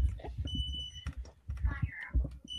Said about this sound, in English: Uh... all right, one second. Um, what my, is... my smoke alarm is going off.